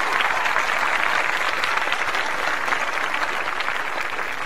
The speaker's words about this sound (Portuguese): Abre as cortinas, Capovila, porque nesta segunda o papo é com o humorista Gilbert César Capovila. Palmas para Gilbert Capovila.